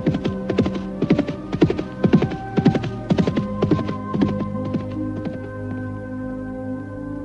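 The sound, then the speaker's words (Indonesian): Rapid hoofbeats from two horses galloping as they race each other at dusk, in a steady, clattering rhythm over a low droning hum, loud at first and gradually fading as they recede. “Dan sebentar kemudian, kuda mereka sudah melaju berkejaran di bawah sinar lembayung senja yang indah.”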